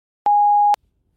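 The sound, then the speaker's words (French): A single steady electronic voicemail beep signalling the caller to leave a message, a clean mid-pitched tone lasting about half a second with sharp clicks at start and end, followed by silence. “Merci de laisser votre message après le bip.”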